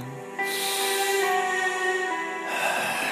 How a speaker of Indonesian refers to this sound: Setelah menarik nafas panjang